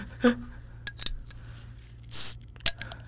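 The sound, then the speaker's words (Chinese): A beer bottle being opened in a recording studio: a few sharp metallic clicks and clinks, then a brief, bright hiss of escaping gas, followed by one more clink. No one speaks. “哇，有呲的声音， 哎、这个声音好疗愈哦！来，再开一瓶，再开一瓶。”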